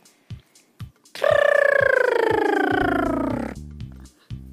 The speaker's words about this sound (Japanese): 続いて巻き舌をやってみてください、はい、では私がやってみます